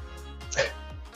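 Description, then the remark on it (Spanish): A single brief, muffled sneeze bursts out midway through, fairly soft, over a steady low background hum with no talking. “Perdón, estaba estornudando.”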